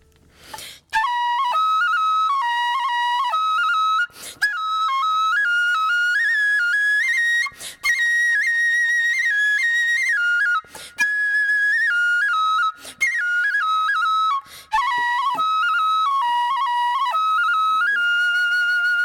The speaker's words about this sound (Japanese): まずあの鬼林っていう基本的なあのフレーズがあるんですけれどもこれの基本の笛をちょっと聞いてみてもらいたいと思います。